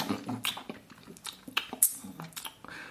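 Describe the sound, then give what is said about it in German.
Wet, squelchy mouth smacking and chewing noises come in quick irregular bursts, moderately loud, like a person imitating a slimy, zombie-like horror-game creature. “Weißt du, dass manche ähm, Geräusche in Horrorspielen so erzeugt werden? Nur durch so Schmatzen.”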